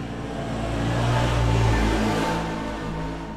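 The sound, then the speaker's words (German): A motorbike engine drones past outside on the outskirts of a city, its buzzing hum swelling to a peak midway and then fading off as it moves away, with no voices. “Okay, es gibt hier Motorräder, ihr hört's.”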